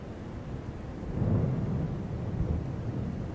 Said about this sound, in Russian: Сегодня дождь и скверно.